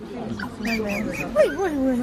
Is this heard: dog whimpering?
yes